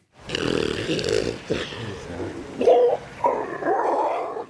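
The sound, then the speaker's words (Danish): A grey seal calls in a series of loud, drawn-out moaning and snorting wails, rough and throaty with rising and falling tones, with no other sounds around. “Det her det er lyden af en sal. Nu skal 40 gråsaler skydes, fordi de generer fiskerne på Bornholm.”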